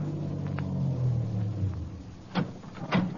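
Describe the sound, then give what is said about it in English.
A car engine rumbles low and steady as the car pulls away slowly from the curb, the drone gradually shifting, followed by a couple of brief scraping or clunking sounds. “I started my car away from the curb slowly, keeping him in sight.”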